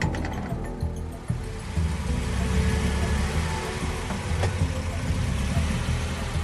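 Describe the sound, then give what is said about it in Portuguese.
A car engine rumbles steadily for several seconds, a low, continuous drone with a slight rise as the car rolls in after a soldier waves it through, mechanical noise filling the background. “Aí ele deu uma recuadinha para trás, fez sinal com a mão para vocês entrarem e vocês entram com o carro.”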